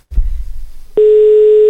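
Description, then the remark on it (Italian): After a brief low rumble of line noise, a steady telephone ringing tone comes on the line, a loud, even electronic hum that holds unbroken until the end. “Un eh, attimo, sta squillando se non risponde.”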